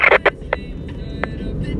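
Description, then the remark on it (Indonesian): A yellow light truck rumbles steadily on the road, its low engine drone continuous throughout, with a few short, sharp bursts of higher sound near the start and a fragment of voice. “Motor dua ada truk kuning, ringan truk.”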